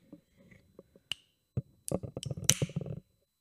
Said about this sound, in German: Okay, dann öffne ich mal den Glückskeks, oder?